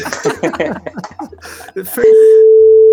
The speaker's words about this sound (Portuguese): Vou, vou, cortar essa parte, cara. Vou, vou bipar, vou bipar essa parte.